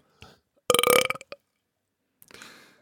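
A loud, drawn-out burp lasting about half a second, followed by a short gap and then a softer breathy, rustling noise.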